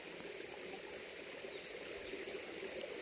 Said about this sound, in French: et observer cette danse aquatique avec ce petit ruisseau qui court au milieu de cette forêt.